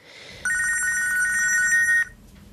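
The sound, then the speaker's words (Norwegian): A telephone at the Red Cross helpline, in attic premises on the fifth floor, rings with a bright electronic trill, one sustained burst of rapid warbling tones lasting about a second and a half, clear, with faint background noise before and after. “Hit til telefonen i loftslokalene i femte etasje hos Røde Kors kommer noen av de vonde historiene.”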